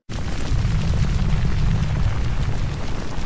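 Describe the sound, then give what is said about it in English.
The 1991 eruption of Mount Pinatubo in the Philippines rumbles in a deep, continuous roar, heavy low-end energy churning steadily for several seconds with a rough, hissing texture on top and no pauses or voices. “Specifically, Mount Pinatubo in the Philippines, which erupted in 1991.”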